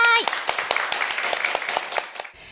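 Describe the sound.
Brisk applause welcoming a listener guest from Fukuoka Prefecture onto the radio show Moonjic Radio, a quick run of sharp claps at an even rhythm for about two seconds after a brief voice at the start, then it stops.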